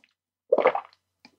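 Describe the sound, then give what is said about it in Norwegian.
A wet slurp of hot coffee lasting under half a second, followed by a faint, soft swallow a moment later, with no talking. “Så jeg slurper alltid når jeg drikker kaffe.”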